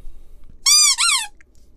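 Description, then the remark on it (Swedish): A spoiler horn is blown in two quick, loud blasts, shrill and reedy with a buzzy tone; the second blast wavers and dips in pitch before cutting off. No one speaks. “Ja, det där var, det där var vår härliga spoiler high. som vi kanske borde ha ersatt med en eh, Rams Bolton-tuta här.”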